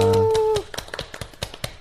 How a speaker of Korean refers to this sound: 박수.